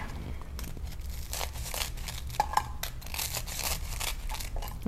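Scissors snipping the crust off a slice of bread in a pan to make a toastie bread, a steady crunchy, crinkling rasp with a couple of sharp little clicks partway through, and no voices.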